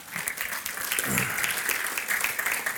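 An audience claps steadily for a few seconds, a dense wash of many hands applauding together at moderate volume, with a brief low murmur of a voice underneath.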